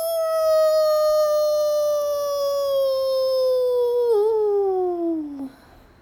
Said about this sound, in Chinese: 森林中的野狼会找一个安静的地方，对着天空发出狼嚎：“嗷！”